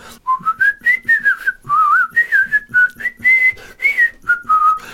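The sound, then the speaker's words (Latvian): Someone whistles a lilting tune, the clear pure notes rising and falling in short phrases with brief breaths between them, and no talking. “bet viņš svilpoja melodijas.”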